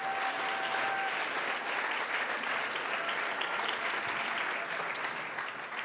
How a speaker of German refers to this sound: Und ich würde euch nochmal bitten, dass wir allen Leuten in Erlangen, die sich da gerade treffen, ihm einen riesen Applaus geben und einmal sagen, hey, klasse, dass es euch gibt.